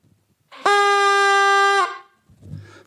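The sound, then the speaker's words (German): A hand-operated, non-battery fog horn gives one loud, steady blast lasting about a second, blaring with a buzzy tone, then cuts off, followed by a brief low rumble. “Das ist ein handbetriebenes Nebelhorn und da werde ich es mal reintuten, damit ihr wisst, wie laut das ist, nicht ins Mikro.”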